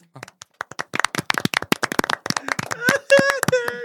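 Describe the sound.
Rapid, uneven hand clapping from several people, sharp overlapping claps building into a burst of applause, with voices and excited talk joining in toward the end.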